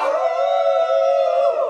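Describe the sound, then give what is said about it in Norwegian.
Wolves howl in a long, steady, loud chorus of overlapping tones that holds for nearly two seconds, with no talking. “Og så er det en gjeng med ulver, så kanskje vi skal bli litt glad i de òg.”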